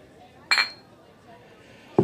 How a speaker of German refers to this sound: Stefan, hier, Daniela, Prost. Dankeschön. Danke, Prost.